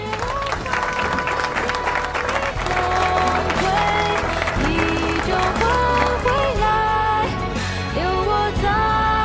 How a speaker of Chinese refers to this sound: 说唱的特别好听，鼓掌。